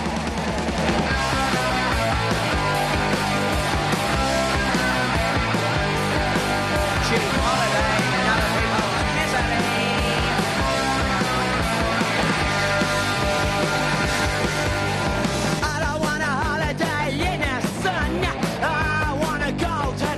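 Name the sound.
punk rock music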